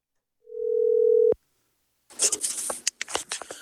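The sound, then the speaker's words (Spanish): A single steady, mid-pitched telephone ringing tone on a call to someone who does not answer lasts just under a second and ends with a click. A stretch of crackling, rustling line noise follows, with no voices. “Así es que vamos a llamarle.”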